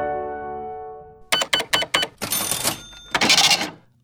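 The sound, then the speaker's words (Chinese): A cash register rings up a sale at a shop checkout: a sustained bell-like tone fades out, then four quick mechanical clacks, a rattling drawer-like whir, and a final bright crashing chime. “没错，这个就是收银机的声音。”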